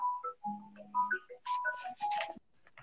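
A phone ringtone plays a quick, bright electronic melody of stepping tones, fairly loud, ending in a busier burst before cutting off.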